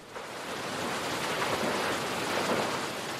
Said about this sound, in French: Le son des chutes est revenu. Je l'entends de mon lit.